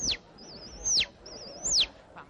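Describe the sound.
Someone whistles an imitation of birdsong and chick calls: three sharp, falling chirps alternate with quick wavering trills, fairly loud, with nobody speaking.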